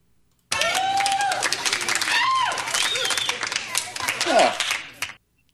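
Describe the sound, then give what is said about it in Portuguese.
A small group claps steadily for about five seconds as a vote on who told the worst joke, a dense patter of many hands, with shouts and a whistle-like cheer mixed in before it stops abruptly. “duas velho. palmas é porque é ruim demais, velho.”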